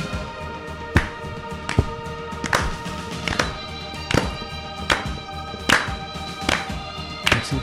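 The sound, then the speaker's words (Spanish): An audience claps along to the beat of the music, steady, sharp claps landing about once a second, cutting through a bed of music with sustained tones. Nobody talks. “¿Quién se atreve ahora a dar palmas al compás de la música?”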